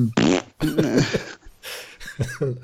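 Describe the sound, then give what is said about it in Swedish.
A person vocally imitates a wet, sputtering fart-like diarrhea noise, a series of loud, spluttering bursts with short breaks between them over nearly three seconds. “Så jävla diarréstråle på porslinet.”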